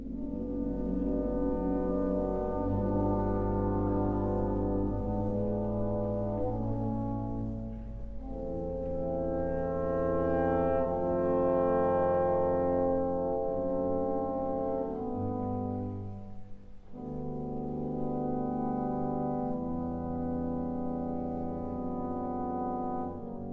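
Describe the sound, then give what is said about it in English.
A soft, slow chorale in the low brass, with warm sustained chords shifting every few seconds and swelling gently, playing alone without any voices. “is one of my favorite moments in all of music this devastatingly beautiful chorale in the low brass.”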